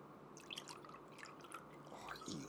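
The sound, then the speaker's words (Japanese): Whisky glugs and splashes into a glass in an uneven run of liquid gurgles for a couple of seconds, fairly clear, with no one talking. “まあウイスキータイムですよウイスキータイムねまあいいんじゃないですかたまにはねはいウイスキーいい”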